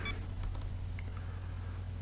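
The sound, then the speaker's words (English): A couple of faint, short electronic beeps from a phone scanning app detecting movement while a book sits in a document stand, one at the very start and a softer blip about a second later, over a steady low background hum. “Movement detected beeps, hand away, fingers at bottom.”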